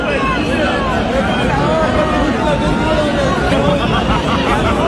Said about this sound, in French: hein, tu l'entends, on est loin du bonne année hurler, même si tu as froid, que as mal aux pieds, parce que tu t'as poireauté pour être bien placé près de l'arc de triomphe et pour cause, la foule attendait en fait un décompte qui n'est jamais venu.